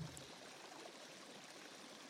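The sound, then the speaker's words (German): Soft, steady trickling water runs continuously with no pauses, like a small stream. No voices or other sounds come through. “Es hat auch was Beruhigendes, dieses Wasser im Hintergrund.”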